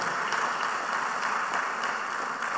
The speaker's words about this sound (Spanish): Denle un aplauso al Señor, por favor, en esta noche. Denle fuertes aplausos al Señor en esta noche.